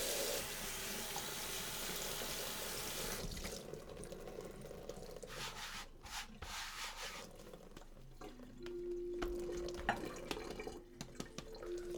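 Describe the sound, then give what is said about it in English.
Warm water gushes from a tap in a steady, loud hiss, then eases into quieter splashing with rubbing and light clattering. No one speaks. “Gotta get warm water again.”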